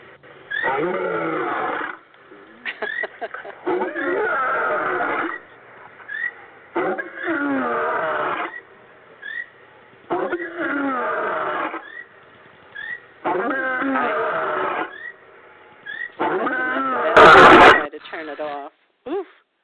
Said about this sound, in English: the Sacred Roar special effect